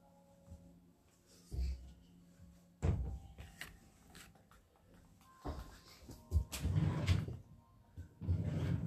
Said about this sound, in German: man kann so Tür zumachen gleich.